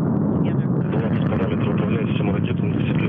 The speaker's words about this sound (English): Engine turbo pumps at flight speed. Engines at maximum thrust. And liftoff. Liftoff of the Soyuz MS-21.